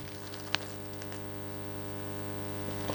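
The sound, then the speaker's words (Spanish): A steady low electrical hum with faint surface static, broken by a single sharp click early on, like a stylus dropping onto a spinning record, then a few soft ticks. “Ese o sonó como si pusiéramos un, un, vinilo. como si pusiéramos la aguja en el vinilo.”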